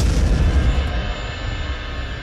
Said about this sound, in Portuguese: A próxima coisa que eu vi foi um leve toque monofônico nostálgico, e então um estrondo repentino e ensurdecedor.